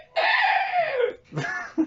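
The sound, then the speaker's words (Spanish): A person squawks like a crow, voicing a long, strained, harsh cry followed by a shorter squawk and a quick clipped yelp, loud with no speech. “Y aparte sonó como un cuervo”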